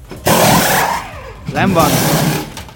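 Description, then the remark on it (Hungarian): A loud Formula 1 pit stop full tire change, the car rolled in and lifted, four wheels taken off and four put on, with two bursts of harsh pneumatic wrench and engine noise, the second carrying a rising whine, and a brief voice speaking between them. “Amit most hallottatok, ez egyébként egy teljes kerékcsere volt, tehát hogy begurult az autó.”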